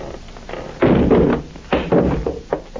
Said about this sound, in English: It is unlocked. No light in the room. Now listen. I'm going to shove the door open, shine my light in.